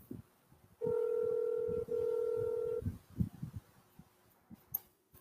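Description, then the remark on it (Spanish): An outgoing telephone call rings unanswered through a receiver: two long, steady electronic ring tones, one right after the other, followed by faint clicks and handling noise. Nobody speaks. “Mm, está sonando, pero no, no suena.”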